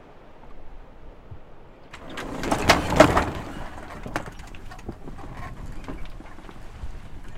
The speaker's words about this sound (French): c'est le bruit des voiles qui se déventent parce que le vent ne souffle pas très fort. Il n'y a pas beaucoup de vent aujourd'hui. Hein non, là il n'y a pas beaucoup de vent, on avance très peu.